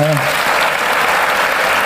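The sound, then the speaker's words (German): Steady audience applause fills the whole stretch, a dense wash of many hands clapping for a man who has just shared his story, with a brief voice trailing off at the very start. “Gebe ihm doch einen Applaus.”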